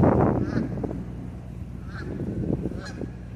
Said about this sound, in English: Don't mind the geese.